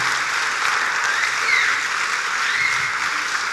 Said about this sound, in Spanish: Para mí eso merece un aplauso. Para mí eso merece una celebración.